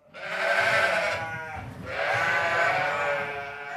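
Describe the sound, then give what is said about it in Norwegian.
Two long, wavering bleats from sheep kept on the small farm Nedre Utgård follow one another with a brief pause between, loud, carrying a rich harmonic quaver over faint background noise. “Bonde Hans Herman Utgård driver med sau.”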